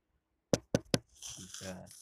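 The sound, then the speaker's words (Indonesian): Three sharp, loud knocks on wood in quick succession at midnight, followed by softer rustling and faint muffled sounds. “gue belum tidur belum merem pules nah ya kan gitu gue udah pas gue udah mau tidur ada yang ketok-ketok”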